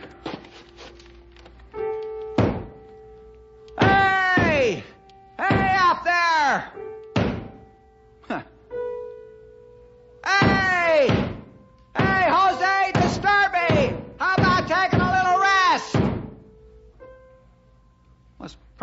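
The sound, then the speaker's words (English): A broom handle thumps against the ceiling in a few hard, irregular knocks, loud, alongside bursts of wavering, voice-like tones that rise and fall between the blows. “Where's that old broom of mine? Maybe if I bang on the ceiling, he'll take the hint and go play ball or something.”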